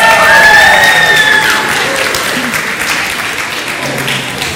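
An audience breaks into a sustained round of applause as a speaker arrives to give a talk, loud and dense clapping with a few whoops and cheers rising early, then gradually tapering off over several seconds.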